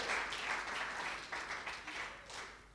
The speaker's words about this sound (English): And within a few short months, we were reunited as husband and wife once again. Woo! Yeah, let's have a cheer for that.